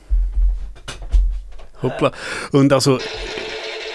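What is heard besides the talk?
telephone ringing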